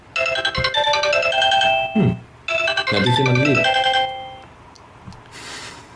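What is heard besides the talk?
phone ringtone ringing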